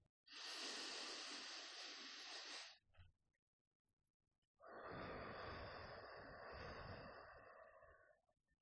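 A slow, deep breath drawn in audibly, a brief pause, then a long airy exhale, fairly loud, with no talking; a deep breath taken at night while looking up at the sky from a rooftop terrace.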